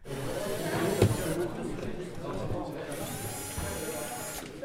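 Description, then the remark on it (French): Electric screwdrivers whir steadily at the Drouot auction house among piled-up crates after the public has left, replacing the sound of hammers, the motor buzz continuous with brief surges, while indistinct voices murmur in the background. “Une heure plus tard, lorsque le public a quitté Drouot, le bruit des visseuses qui a remplacé celui des marteaux sonne comme un appel.”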